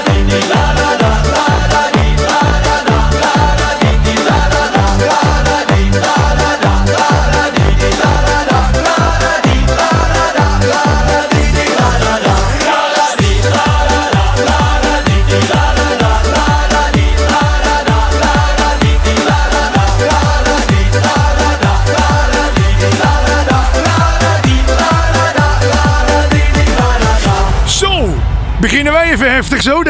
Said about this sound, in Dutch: Mensen, eh, je hoorde de allernieuwste single